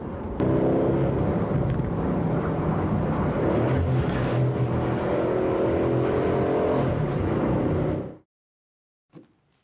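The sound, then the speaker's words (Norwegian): A British luxury sports car engine roars loudly, revving and accelerating steadily for about eight seconds before cutting off abruptly into near silence, with one brief faint knock afterward. “så går denne bilen mer enn fort nok for alle oss normale.”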